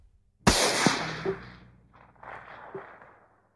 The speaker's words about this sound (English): During the night, the people in the next house heard a gunshot.